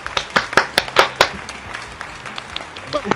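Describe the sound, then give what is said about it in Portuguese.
A short burst of applause: sharp, irregular hand claps that are loudest in the first second and a half, then thin out into scattered, softer claps with faint murmuring underneath. “Palmas aí.”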